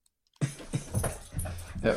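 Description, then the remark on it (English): A dog barks and whimpers excitedly, a loud, restless run of yelps and whines that starts abruptly after a moment of silence and keeps going. “My dog is going crazy right now.”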